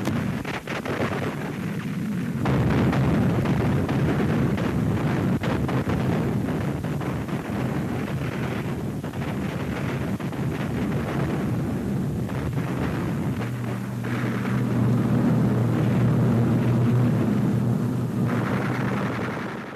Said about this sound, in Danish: Nazi-Tysklands rigshovedstad Berlin er under angreb fra den røde hær. Krasnaya Armea hører vi her i denne lydstum fra en sovjetisk propagandafilm og med kanontorden i baggrunden, mens til 34 kampvognene ruller på vej ind mod byens centrum